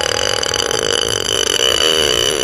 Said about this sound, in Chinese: 如此近的距离，那可怕的打嗝声终于清晰地传到了我的耳朵里。